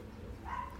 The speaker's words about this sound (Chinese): 外面有狗叫声啊